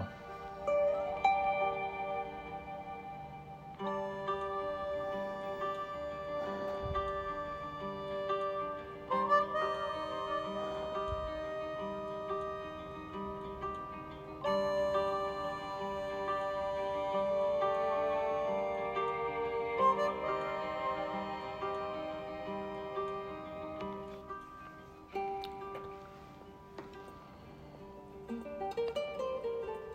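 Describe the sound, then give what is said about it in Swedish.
Calm, slow instrumental music with sustained, gently layered tones that shift softly over about thirty seconds, steady and moderately quiet, with no voices, played during a pause for listening and breathing to find inner calm. “men det första jag tänkte göra är att eh, lyssna till musiken, andas lite så vi hittar ett litet lugn inombords innan vi fortsätter.”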